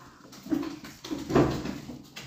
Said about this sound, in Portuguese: Meus gatos estão fazendo maior barulho aqui. Não sei se vocês estão escutando.